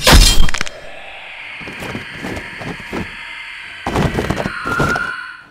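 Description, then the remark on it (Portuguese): A heavy hammer swung into the ribs of a humanoid creature lands with a loud clanging impact, followed by a sustained metallic ring and a few more cracking knocks, with no voices. “Você gira o seu martelo e você pega no meio das costelas da coisa humanoide, você escuta um.”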